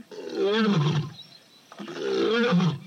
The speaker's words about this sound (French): Tu as entendu Sur l'enregistrement, on entend une lionne étrangère rugir. Aux jumelles, on peut observer les lionnes qui viennent d'entendre elles aussi ces sons.